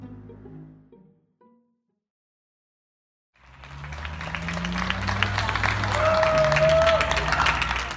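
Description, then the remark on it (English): After a brief stretch of silence, a large crowd at open windows breaks into sustained, dense applause for hospital workers and ambulance drivers at 7 o'clock in the evening, with scattered cheers and a single sharp whistle, the clapping steady and loud until the end. “In the spring, people started applauding hospital workers and ambulance drivers at 7 o'clock every night.”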